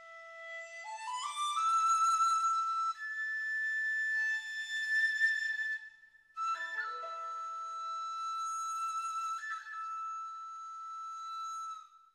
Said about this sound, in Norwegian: Kinesisk musikk.